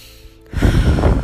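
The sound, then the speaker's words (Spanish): A sharp, quick inhale through the nose or mouth begins after a brief quiet moment, followed by a sustained, breathy rush of air, part of a quick 10-to-15-second relaxation breathing exercise for children. No speech is heard. “hagan esa respiración. Es muy rápida, o sea, les toma 10 segundos, 15 segundos en hacerla”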